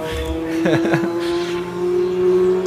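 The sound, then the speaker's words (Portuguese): A motorcycle engine drones steadily throughout, holding a constant mid-low pitch with a buzzy tone, while a brief burst of voice sounds rises over it early on. “Uau, essa moto tá no meu ouvido.”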